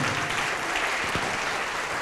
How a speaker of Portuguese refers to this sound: Vamos aplaudir ao Senhor Jesus por cada vida que está chegando.